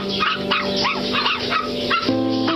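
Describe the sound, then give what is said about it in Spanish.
A cluster of high, excited yips and barks from a dog and her five small puppies running out from the back of a shop, overlapping in quick bursts, with a steadier tonal whine near the end. “De la trastienda salió su perra corriendo seguida por cinco lindos perritos.”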